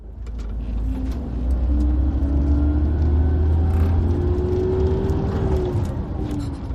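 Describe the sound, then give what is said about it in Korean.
Steady low engine rumble and road drone from a premium express bus cruising at speed on a highway, on a trip of a little over four hours to the Tongyeong intercity bus terminal, with a faint engine tone that slowly rises and falls. No one speaks. “우등버스도 좋아요.”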